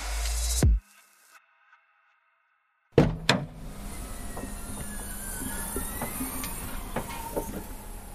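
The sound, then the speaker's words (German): A short burst of noise, then a pause, then a sharp clunk of the rear door latch of a Jimny, followed by a steady hiss and faint whine as a gas strut pushes open the large door that spans the full width of the vehicle. “Und wenn wir schon beim Kofferraum sind, dann müssen wir auch nochmal ganz kurz einspielen, wie man äh, die hintere Tür aufmacht.”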